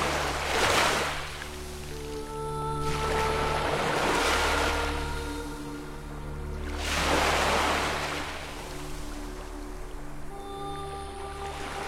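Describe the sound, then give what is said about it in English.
Ocean waves break and wash in three slow, rolling surges a few seconds apart, a broad hissing roar rising and fading each time over a steady low, humming drone. “I am the ocean. I'm water.”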